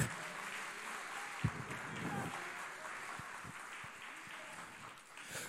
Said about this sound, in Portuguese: Se você crê nisso, aplaude aplauda ao nome do Senhor.